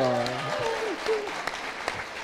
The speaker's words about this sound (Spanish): Eh, dije aplauso.